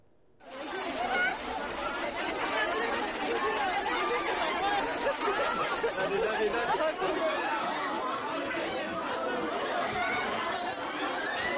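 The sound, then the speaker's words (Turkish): A dense crowd of many voices chatters and shouts all at once, a loud continuous babble with occasional laughter, as unmasked shoppers push and crush together in a packed household goods store that announced a discount sale. “Sayın seyirciler bir ev eşyası mağazası indirimli ürün satacağını duyurunca göreni hayrete düşüren bir izdiham yaşandı.”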